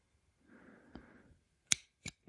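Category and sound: household object, ballpoint pen clicking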